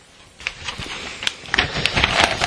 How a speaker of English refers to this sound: Just rustling the newspaper as I get to the, the next story I really wanted to look at.